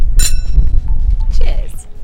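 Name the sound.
drinking glasses clinking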